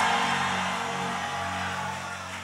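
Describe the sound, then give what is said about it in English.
A church audience at Charis Church cheers and claps together, giving the Lord a big shout and a clap, a dense, continuous wash of shouting and applause that stays loud and steady throughout, with no single voice standing out. “Give the Lord a big shout and a clap.”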